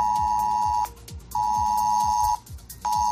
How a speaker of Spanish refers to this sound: una alarma podrá sonar en nuestro teléfono móvil avisándonos de una emergencia